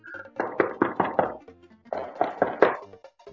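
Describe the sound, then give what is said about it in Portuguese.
Knocking on a bathroom door in two quick sets of about four firm raps each, separated by a short pause. The knocks are fairly loud, with no talking. “a mãe do fulano, ele começou a bater na porta, assim, tá preocupado com o fulano.”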